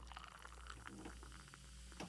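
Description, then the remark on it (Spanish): A drink is poured into a glass, a steady trickling splash lasting a couple of seconds over a low background hum. “tantas dudas me dio sed”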